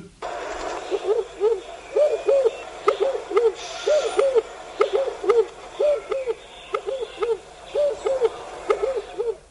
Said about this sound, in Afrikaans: En dan die groot ringduif wat bekend staan as die in Engels as die red-eyed turtle dove en hy klink so